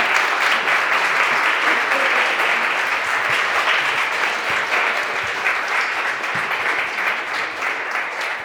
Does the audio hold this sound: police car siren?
no